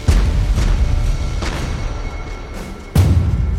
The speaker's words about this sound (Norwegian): Når tyskerne oppdager festskøyta, tar de opp jakta. Og utafor Rekøy i Flatanger har de kommet på skuddhold og åpnet ild.